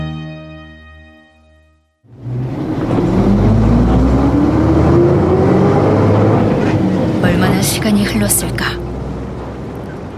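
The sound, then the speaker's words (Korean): After a brief low hum, the loud engine rumble of a vehicle carrying men across a border kicks in and drones steadily, with a rising whine underneath and a few sharp, high-pitched bursts near the end, as a strange animal's eerie cry is heard through the engine noise. “엔진 소리를 뚫고 어디선가 낯선 동물의 기이한 울음소리가 들려온다.”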